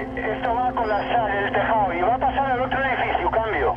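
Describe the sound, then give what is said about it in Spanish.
A firefighter talks continuously over a fire brigade's two-way radio during a building fire, calling a colleague, his voice thin and band-limited, with a steady electrical hum running beneath the transmission for several seconds. “Este es el sonido de la radio de bomberos ese día.”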